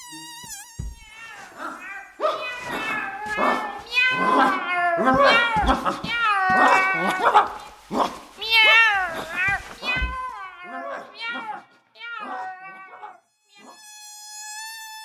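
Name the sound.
cat meowing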